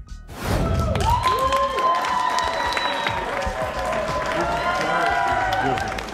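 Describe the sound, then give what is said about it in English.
A crowd of Wolf fans at the airport cheers and applauds loudly and steadily, welcoming D'Angelo Russell, with overlapping shouts and whoops rising above a dense wash of clapping that starts abruptly and holds for several seconds. “He makes it through the airport, and there are tons of Wolf fans welcoming D'Lo.”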